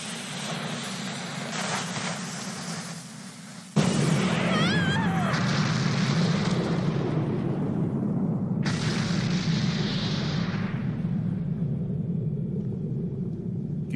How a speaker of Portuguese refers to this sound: Que explosão foi essa? É a Bugdama do Capitão Bug, só pode!